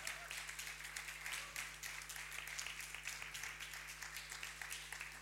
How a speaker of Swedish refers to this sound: Vi kan ge dem en liten applåd här, så kan ni komma fram och ställa er här.